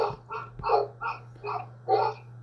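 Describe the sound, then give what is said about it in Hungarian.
A dog barks in a quick run of about six sharp, evenly spaced, fairly loud barks, over a steady low background hum with no talking. “beengedtél még egy kutyát? A gyöngyéké is megszólalt.”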